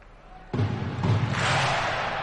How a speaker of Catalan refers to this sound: perquè no és ple i cap a aproximadament 15.000 persones i ara fa, tothom està amb les mans en l'aire, escolteu i ara el, la mascota al mig de la pista fa allò de picar de mans escolteu, escolteu